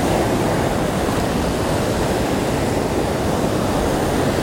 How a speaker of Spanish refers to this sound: Este sonido de las olas que a lo largo de toda la historia ha existido. Que a todos los seres humanos nos llena de energía, nos llena de paz, de calma.